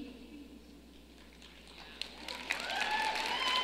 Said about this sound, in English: And I appreciate you for clapping first, sir, with the glasses. I saw you.